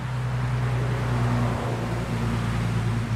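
A steady, loud roar of road traffic in the Great Smoky Mountains, with a low engine hum that shifts in pitch as vehicles pass, continuous throughout with no voices.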